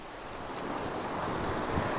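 Steady wind roars over the open sea while waves wash and churn beneath it, a dense, unbroken rush of noise that swells slightly toward the end, with no voices.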